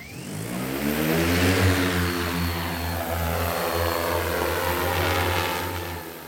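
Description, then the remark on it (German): A loud, steady black-and-orange six-propeller transport drone, 1.60 m in diameter and 18 kg, hums and whines, its stacked propeller tones holding strong for several seconds as it lifts off during a test near Freising, Germany, with no voices present. “Die mächtige Transportdrohne hebt ab.”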